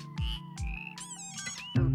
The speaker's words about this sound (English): An amphibious menagerie, a boreal chorus, a friendly croaking sight in rainy forests.